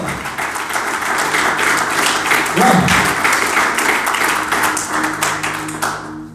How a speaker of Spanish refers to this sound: ¿Alguien puede aplaudir en esta tarde?